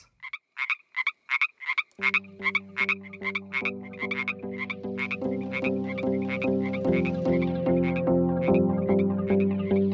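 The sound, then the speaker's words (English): American bullfrogs croak in deep, droning, rapidly pulsed calls that swell louder and overlap, while a steady higher-pitched chorus of chirping calls pulses alongside them throughout. “Don't transport and release bullfrogs.”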